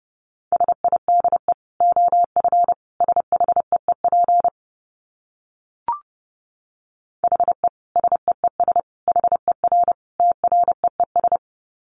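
Morse code sent at 30 words per minute: a single steady mid-pitched tone keyed into rapid dots and dashes, in two long bursts separated by a pause with one brief click.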